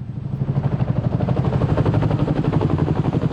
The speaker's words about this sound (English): They were late getting started. It was a muddled beginning. But 96 helicopters eventually took to the air shortly before half past four.